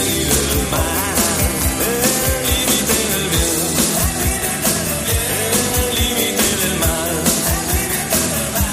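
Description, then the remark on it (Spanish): A full-band Spanish pop-rock song plays loud and steady, with pounding drums keeping a driving beat beneath guitars and a lead melody, no spoken voices over it. “cómo me gustaban las baterías del pop español.”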